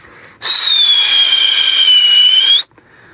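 A person whistles one long, high note through pursed lips, breathy, sliding slightly downward in pitch for about two seconds before stopping abruptly. No one speaks.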